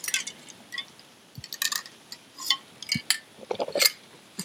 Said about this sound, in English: So, grab a sip of water here.